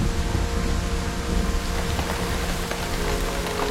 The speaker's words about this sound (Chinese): 整座黑暗的城市开始下起了雨滴。